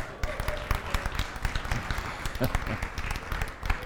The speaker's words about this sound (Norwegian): Gi han en skikkelig klapp.